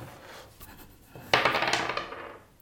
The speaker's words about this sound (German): Ja, ich würfel eine 4.